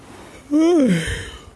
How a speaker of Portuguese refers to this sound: Até ah, bocejei.